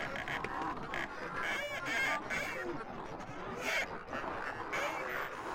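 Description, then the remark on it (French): Folding theater seats squeak and creak repeatedly, overlapping high-pitched squeals that continue steadily throughout, moderately loud. “Il y a donc ce plancher qui craque, mais aussi des strapontins qui couinent.”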